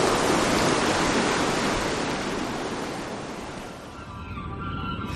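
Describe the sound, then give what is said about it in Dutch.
Surf washes steadily onto a beach as someone walks along the shore with the waves playing at their feet: a broad rushing hiss that swells loudly at first and slowly ebbs, with a faint fizzing backwash near the end. No voices. “Een aangename wandeling langs het strand. Terwijl de branding op mijn voeten speelt.”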